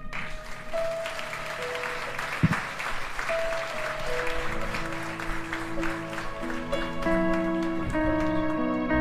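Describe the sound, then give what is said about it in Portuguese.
An audience claps steadily for about nine seconds, applauding the Lord at a church sermon, a dense, even crackle of many hands, with sustained keyboard-like musical notes ringing underneath and a single dull thump partway through. “Glória a Deus, aplauda o Senhor.”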